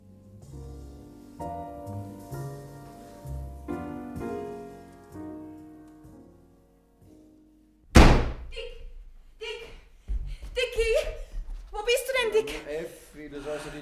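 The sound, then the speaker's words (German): Soft music fades out, then a door slams shut with a single loud, sharp bang, followed by people talking excitedly and a breathy gasp. “Tür nicht immer so zuschmeißt.”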